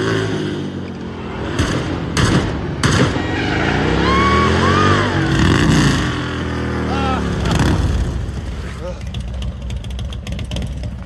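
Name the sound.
motorcycle arriving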